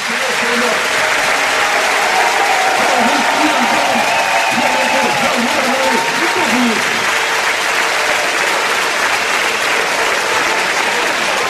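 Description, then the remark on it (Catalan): The football crowd at Montilivi stadium in Girona stands for a sustained ovation during a substitution as Tsigankov leaves the pitch, with a Ukrainian flag in one stand; dense applause and cheering roar steadily throughout, voices rising and falling within the din. “Ovació de gala amb bandera ucraïnesa en una de les graderies de Montilivi.”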